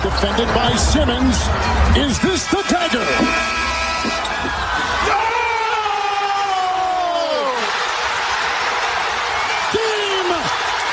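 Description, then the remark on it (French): A basketball bounces twice off the rim on a buzzer shot in game 7 between the Toronto Raptors and the Philadelphia 76ers in Toronto, and the loud arena crowd swells into a roaring eruption, with excited commentary voices rising and falling over the noise. “ça a explosé à Toronto parce que ce qu'on entend c'est que le ballon rentre pas directement ça, dans le il rebondit deux fois sur l'arceau T'imagines la pression, toi, Au la moment du buzzer, ça rebondit, c'est incroyable.”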